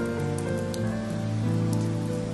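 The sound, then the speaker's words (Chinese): Steady rain patters down on a courtyard vegetable garden with a clump of green perilla, a dense hiss broken by scattered brighter drops, while low sustained tones hum softly underneath; no one speaks. “院子里有妈妈的小菜园，一团青色的紫苏也淋着雨。”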